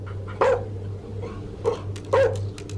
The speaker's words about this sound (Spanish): El perro pasó corriendo por detrás de nosotros y subió a saltos por las escaleras hacia el segundo piso donde le ladraba de forma muy agresiva a algo.